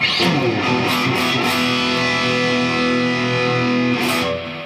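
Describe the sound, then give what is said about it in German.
A heavily distorted electric guitar rings out at full gain, a thick sustained chord with a dense, buzzing top end and a few sharp pick attacks, loud and steady throughout with no talking. “dass man sich halt auch jetzt in der Gain-Einstellung. Lass mal einmal Vollgas hören und dann mal von unten nach oben.”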